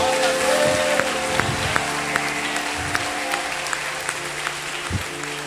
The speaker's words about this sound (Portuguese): Agora aplaude ele para valer, aplaude.